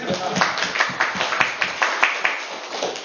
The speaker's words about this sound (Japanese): イエス様に拍手しましょう